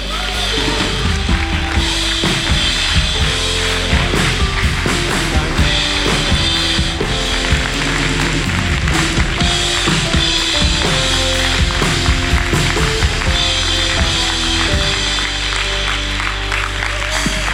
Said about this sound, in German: Hey, vielen, vielen lieben Dank. Danke für diesen Applaus, danke für eure Wertschätzung.